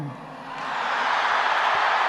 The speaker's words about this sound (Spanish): Esos serán los aplausos de la plaza de San Pedro.